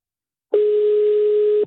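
A telephone hold tone: one steady, unbroken electronic beep lasting about a second, loud, with silence before it and no voices.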